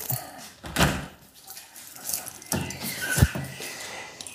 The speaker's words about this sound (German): So, machen wir mal die Tür zu.